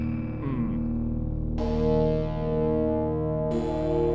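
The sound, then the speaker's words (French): A deep, sustained bass tone from a PPG synthesizer with a gritty, lo-fi edge of 1980s digital-to-analog conversion, holding steady for about four seconds while two brighter, buzzy layers swell in partway through. No voices. “C'est fou, hein Vous entendez ce son dans le grave là Ça là.”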